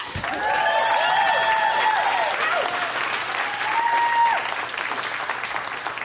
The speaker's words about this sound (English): And you should clap for that. You should clap.